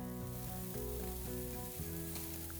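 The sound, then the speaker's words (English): Meat sizzles steadily in a hot pan over high heat, a continuous crackling hiss with a low hum beneath it and no voices. “That sound and smell, it's addictive.”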